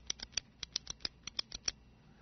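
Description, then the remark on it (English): A mechanical pencil clicked repeatedly to push out the lead, about a dozen small, sharp, dry clicks in quick, slightly uneven succession, fairly quiet, with no talking. “Okay, now, nowadays, most people have what's called those mechanical pencils. You know, you click them”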